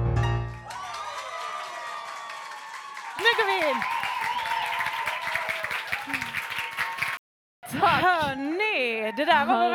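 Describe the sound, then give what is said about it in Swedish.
Audience applause for four performing artists at a quiz event, a dense patter of clapping running under sustained, wavering sung or held tones. It breaks off briefly into silence before warbling voices resume. “En applåd för artisterna.”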